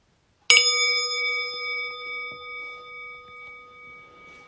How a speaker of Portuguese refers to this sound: E eu vou fazer um convite para o sino soar e a gente vai continuar quieta sem ter que se mexer instantaneamente.